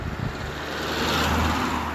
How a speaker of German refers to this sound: oh warte, Autos